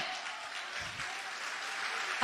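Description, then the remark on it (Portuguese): A church audience applauds in dense, continuous clapping, steady and fairly loud throughout, with a brief burst of added noise right at the end and no clear voices over it. “Mistura essas palmas com glória a Deus e aleluia!”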